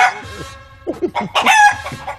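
A rooster crows loudly, a strained, harmonic cock-a-doodle-doo broken into several rising and falling bursts, with short clucking sounds in between and no talking.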